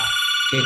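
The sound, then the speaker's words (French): A landline telephone rings loudly, a bright, sustained trilling tone filling the brief moment, with a faint low rumble of background voices at its edges; the call, an advertisement, goes unanswered. “c'est un téléphone fixe que je n'utilise jamais”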